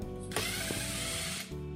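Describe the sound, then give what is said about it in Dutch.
A power screwdriver drives in one of the last screws while fastening carpet pieces onto a cat tower, with one steady, buzzing whir lasting just over a second, its faint ratcheting texture rising above a quiet hum before stopping abruptly. No one speaks. “Nog twee vijsjes. De laatste nog.”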